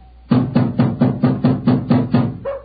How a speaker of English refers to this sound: Knock again, old fellow, will you?